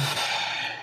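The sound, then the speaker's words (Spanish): A single sneeze: a loud, breathy, hissing burst of air that holds steady for under a second before fading slightly, with no talking. “¿Eh? Salud.”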